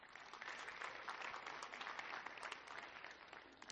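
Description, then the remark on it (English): An audience claps steadily for a few seconds, a dense patter of many hands blending into a continuous wash of applause with no voices over it, clapping for news of money spent on missions last year. “Yeah, you can, you can clap for that.”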